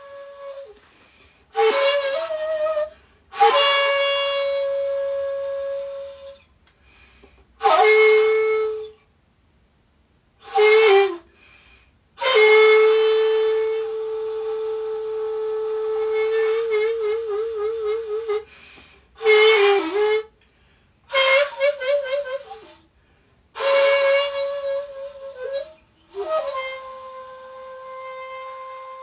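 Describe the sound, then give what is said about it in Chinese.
A daegeum flute played by the Korean pansori master Song Heung-mok, recorded by the Han River, plays a slow farewell melody in separate breathy phrases of sustained, mid-high notes. One long note wavers with vibrato, and short pauses fall between phrases. No one speaks. “那你现在听到的就是韩国国宝级盘索里大师宋兴墨用大琴来吹奏的一首关于送别的曲子。”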